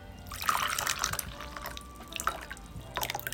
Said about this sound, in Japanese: これ玄米茶なのであの上等式では入れなくて大丈夫そのままもうすぐお湯でお湯をちゃちゃっと湯冷ましとかしなくていいいいです聞こえてんのかもこれじゃあ入れます